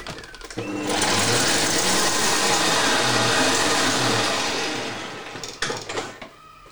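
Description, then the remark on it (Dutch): An electric mixer whipping cream makes a motorized whirring hum that starts up and runs steadily for about four seconds, loud and even, then winds down followed by a few clattering knocks. “Zijn we klaar voor het kloppen van de rom?”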